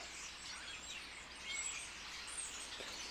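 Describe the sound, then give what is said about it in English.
Faint birds chirping against a steady outdoor hiss, a few short high tweets scattered through the quiet background, with no one speaking. “And then the camera leads to the microphone and the birds.”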